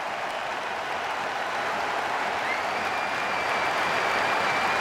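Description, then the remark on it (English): Sustained applause from a large stadium crowd at a football match, a minute of applause after the referee stopped the game, a dense wash of clapping that swells slightly and holds steady throughout, with no voices standing out. “here comes a minute of applause for Christian Eriksen”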